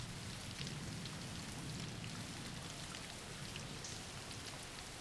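Steady rain falls without pause, a dense, even hiss of drops spread across the whole range, holding at a constant level with no voices present.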